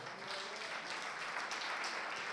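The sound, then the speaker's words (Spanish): An audience breaks into steady applause, many hands clapping together in a dense, even wash of sound that holds at a constant level for a couple of seconds. “Dame un aplauso al Señor mejor.”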